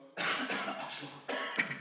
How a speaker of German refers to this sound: ich habe in letzter Zeit gerade mit dem Husten zu kämpfen.